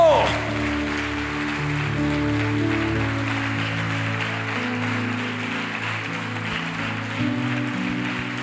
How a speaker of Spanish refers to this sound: Cuando dicen amén, dele fuerte ese aplauso al Señor. Fuerte ese aplauso.